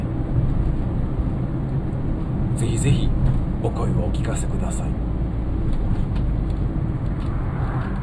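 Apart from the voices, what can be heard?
car interior road noise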